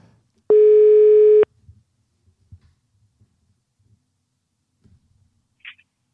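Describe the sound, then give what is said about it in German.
A single loud, steady telephone ringing tone sounds for about a second while a call connects, followed by near silence with a few faint, low background bumps and a brief high chirp. “Normalerweise tutet es doch, wenn du willst. Und jetzt tutet es tatsächlich.”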